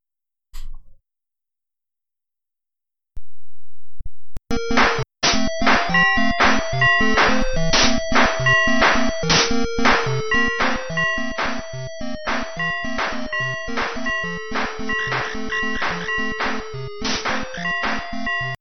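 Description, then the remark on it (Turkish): After a short pause, bright bell-like chimes ring out, struck over and over in a quick, steady rhythm each time a creature strikes. They are loud, with ringing tones layered into electronic music made with a Yamaha sound generator. “Zil sesini duyuyor musunuz? Kilise çanı bir şey geliyor orada yaratık vurdukça.”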